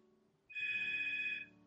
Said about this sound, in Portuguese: Tá tocando o telefone, eu não vou atender.